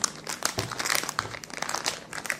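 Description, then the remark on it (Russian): Continuous crinkling and rustling of a small plastic packaging bag holding a Chinese USB video capture card bought on AliExpress, being handled, with dense irregular crackles lasting throughout and no speech. “Сейчас я достану, чтобы вам не докучать этим шелестом пакетика.”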